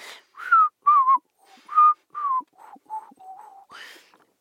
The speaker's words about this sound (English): You know that was whistling. You know that. I was whistling.